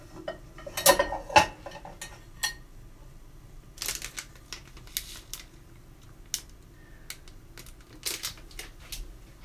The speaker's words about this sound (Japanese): はいえっとタイマーをねセットしますご飯をね今土鍋で炊いてるのであの自分でキッチンタイマーで時間をセットしてやってますね